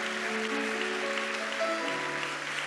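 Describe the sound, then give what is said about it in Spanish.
A crowd claps steadily throughout in a dense, sustained wash of applause congratulating those who joined in a prayer, with soft sustained keyboard or organ tones playing underneath. No one speaks. “¿Qué tal un aplauso de felicitación a todos ellos?”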